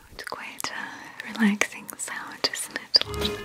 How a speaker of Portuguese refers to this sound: Ai, que barulhinho gostoso. E se o passaporte para o mundo sem estresse fosse um ruído? Ou vários? Ou um sussurro?